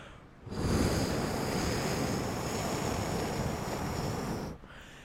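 A loud, steady roar of howling hurricane wind rushes in suddenly, holds for about four seconds with a thin high whine on top, then cuts off. No one speaks.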